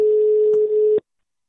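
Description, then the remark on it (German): A steady telephone beep tone holds one pitch for about a second, loud and unbroken, then cuts off abruptly into silence. No voices are present. “wenn es immer so piepst, dann nervt ja wahnsinnig.”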